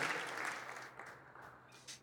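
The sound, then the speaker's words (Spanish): An audience applauds the word of the Lord, a dense wash of many hands clapping that starts full and gradually thins and fades over a couple of seconds, with a few scattered claps near the end. “Denle un aplauso a la palabra del Señor”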